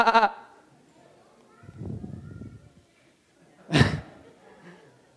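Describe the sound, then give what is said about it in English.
A person imitates a sheep's bleat with a few short, nasal "baa" sounds, fairly loud, separated by brief pauses and soft breathy noise. “We're going to end up stuck somewhere we don't want to be, going, ba bah, bah.”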